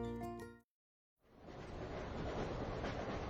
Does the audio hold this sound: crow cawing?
no